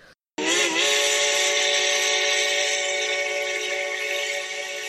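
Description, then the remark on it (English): A steam engine whistle blasts loud after a brief pause, holding one long, steady, breathy tone for several seconds with a hissy edge, fading only slightly toward the end. “But when I was scared, I would blow my whistle.”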